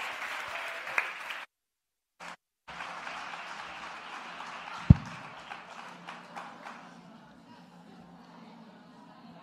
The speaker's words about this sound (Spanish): Un aplauso para ellos.